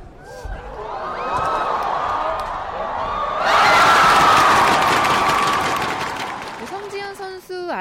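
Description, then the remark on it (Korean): A large crowd of spectators cheers and shouts continuously at a badminton semifinal between Sung Ji-hyun and Thailand's Ratchanok Intanon, swelling louder midway with a sustained roar and scattered applause, then a voice cuts in at the end. “많은 관중들도 마음을 모아서 함께 응원하고 있습니다.”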